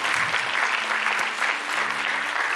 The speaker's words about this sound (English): uh, round of applause and gratefulness.